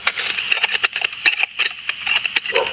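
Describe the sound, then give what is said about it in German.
Footsteps of a jogger running past, heard while out on a dog walk, come through as a string of sharp, crackling clicks in an uneven rhythm over a steady high-pitched hiss. No one speaks. “So hört sich ein Jogger an.”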